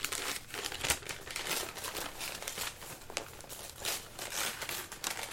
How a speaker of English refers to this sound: know why you don't wrap presents in newspaper more often. It doesn't sound. It's not so loud when you rip it because it's just newspaper.